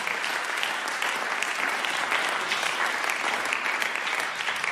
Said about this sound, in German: Gebt den beiden doch nochmal einen Applaus.